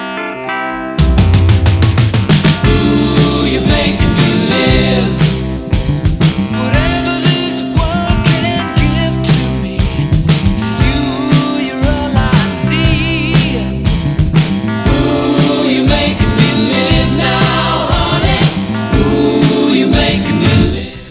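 A rock song plays loud and full for about twenty seconds, with steady driving rhythm, bright guitars and layered instruments, starting abruptly after a brief quiet moment and no talking over it.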